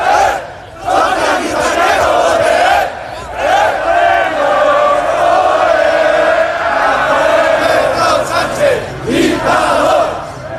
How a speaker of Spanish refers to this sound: También en Madrid, 7.000 ciudadanos han concentrado por quinto día consecutivo ante la sede nacional del PSOE en la calle Ferraz. La manifestación ha comenzado de forma pacífica bajo cánticos contra Pedro Sánchez.